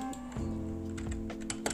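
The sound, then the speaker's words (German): Rapid computer keyboard typing while someone plays games on a PC, a quick irregular run of clicky keystrokes over a steady low hum, moderately loud, with no one speaking. “Ja Leute, ihr hört vielleicht im Hintergrund, ich äh, zocke nebenbei PC.”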